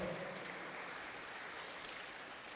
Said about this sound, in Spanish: Déselo al Señor ese aplauso si se lo va a dar, por favor.